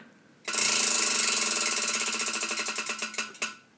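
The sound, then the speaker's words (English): A homemade prize wheel listing rules spins with a loud, rapid rattle of clicks that gradually slow into distinct, spaced ticks as it winds down. The sound is clear, and no one speaks. “So we're gonna pick. Ready? Via the wheel. Let's hear it.”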